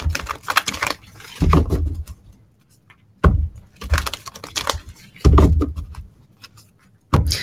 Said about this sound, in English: Let me take a moment and, and shuffle some cards here, and we're going to take a look at the message in ah. response oh, to that question, okay?